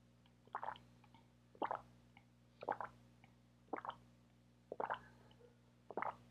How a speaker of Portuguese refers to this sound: Deixa eu só beber um copo de água aqui.